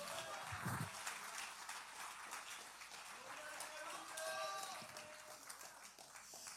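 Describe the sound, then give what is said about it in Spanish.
A crowd claps steadily and densely for several seconds as applause to the living God, a loud, continuous patter, with a few voices calling out over the applause. “la aplauso al que vive.”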